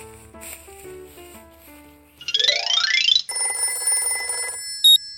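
A phone watch rings with a bright electronic melody, then a rising swoosh and a buzzing, trilling tone, ending in one short high beep. No one speaks.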